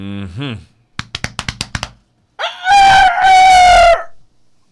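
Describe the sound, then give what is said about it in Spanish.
A rooster crows loud, one long strained call with a brief break, preceded by a short warbling tone and a quick run of sharp taps. “¿Qué es eso? Un gallo.”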